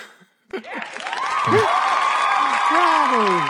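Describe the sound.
After a brief quiet start, a sustained wash of applause rises and holds steady for about three seconds, with voices calling out and talking over the clapping.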